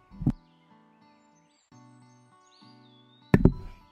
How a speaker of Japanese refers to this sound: 椅子おろしますね。